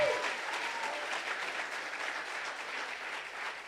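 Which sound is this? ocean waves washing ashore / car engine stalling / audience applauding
audience applauding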